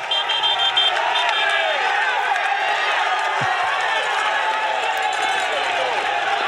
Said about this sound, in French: Voilà. Et ambiance extraordinaire. Incroyable. là, il arrive au, plus fort des troupes qui l'encouragent. C'est dingue, c'est complètement dingue.